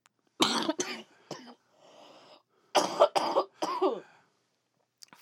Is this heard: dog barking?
no